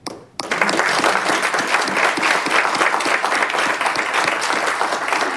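Sustained applause from an audience at an in-person event, a dense wash of many hands clapping that starts abruptly after a brief silence and holds steady and loud throughout.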